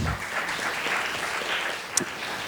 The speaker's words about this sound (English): And luckily, California, give yourselves a round of applause.